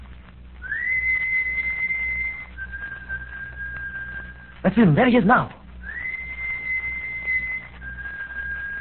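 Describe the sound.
Two long, steady whistle blasts sound a few seconds apart as a signal, each sliding up and then holding before stepping slightly lower. A short harsh burst falls between them, and voices speak quietly underneath.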